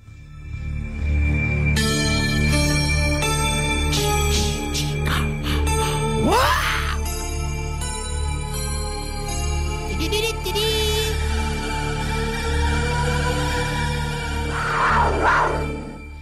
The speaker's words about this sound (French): Oh, la panthère, ah, là. J'ai, le droit à la panthère. Un bruit de cougar. Le cougar, Cougar, ah, c'est vrai, cougar.